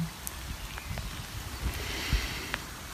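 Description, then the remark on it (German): Steady soft rain patters outside, a diffuse hiss broken by scattered drips and occasional louder drops, fairly quiet, with no voices. “Und vielleicht kannst du jetzt den Regen aufhören.”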